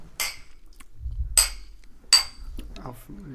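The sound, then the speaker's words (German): Glasses clink together in a toast, three sharp, bright chinks spaced about a second apart, each with a brief ringing tone, over a low background rumble. “Wir haben noch gar nicht äh, äh im, in, live im Podcast angestoßen.”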